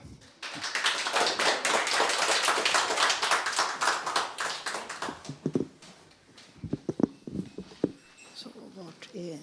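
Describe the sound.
A crowd bursts into sustained applause lasting several seconds, dense and loud, then it thins into scattered claps as a voice begins speaking over the tail end.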